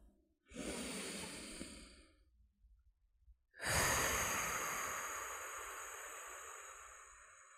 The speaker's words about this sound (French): Prenez une grande respiration pour évacuer vos tensions.